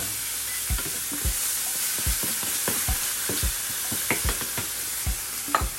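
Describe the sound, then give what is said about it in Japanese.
Bacon, added after oil and onion, sizzles steadily in a hot pot while a utensil scrapes and stirs it in repeated short clacks, fairly loud, with no talking. “そのままベーコン入れますちょっとちょいねおおちょっと結構ねなんか鍋がいい感じやから温まるまで早い”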